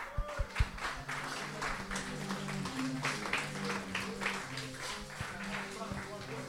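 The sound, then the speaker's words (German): An audience in Würzburg applauds steadily throughout, a dense crackling wash of many hands clapping at fairly even loudness, with a low murmur of voices underneath. “Deswegen einen großen Applaus.”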